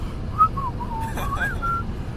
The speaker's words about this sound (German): Hä, heute war ich auch, Digga, ich habe nebenbei Lieder gepfiffen.